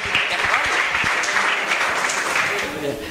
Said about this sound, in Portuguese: Quantos podem aplaudir o Senhor Jesus, amém?